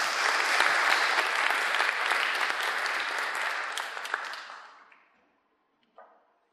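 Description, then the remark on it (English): A dense round of clapping from many people, loud and sustained for about four seconds, then tapering off into silence, followed by a brief faint thump. “Give, every, give everyone a round of applause there.”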